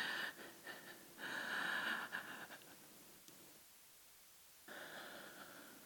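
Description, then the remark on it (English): Heavy, noisy breaths drawn in and pushed out as someone practices breathing to calm down, a long airy stretch followed by a pause and then another breath. No one speaks. “Just practice breathing.”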